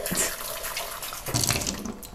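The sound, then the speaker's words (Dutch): Tap water runs steadily into a glass, a continuous splashing hiss that swells a little as the glass fills, with no talking over it. “Oeh, ik voelde gewoon water tegen mijn shirt aan.”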